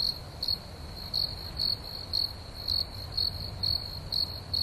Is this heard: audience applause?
no